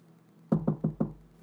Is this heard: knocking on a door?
yes